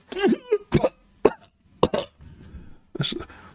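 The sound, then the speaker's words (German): A person coughs in a series of about five harsh bursts, with a rough raspy breath between the later ones, rather like acted or exaggerated coughing. “hustet, ein bisschen Rauch steigt ihm aus dem Mund.”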